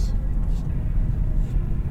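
A steady, low road rumble from inside a car driving through Bekkestua, constant and fairly loud throughout with no breaks, the muffled drone of engine and tires filling the cabin.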